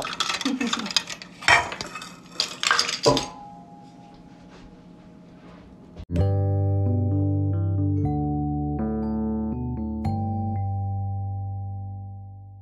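Cupcake batter being spooned into 12 paper wrappers: a few quick scrapes and clinks of a spoon against a bowl, then a steady hum and loud music take over.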